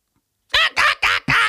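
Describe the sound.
A voice imitates the super parrot from the Three Investigators (drei Fragezeichen) stories, with four loud, raspy screeches in quick succession after a short moment of silence.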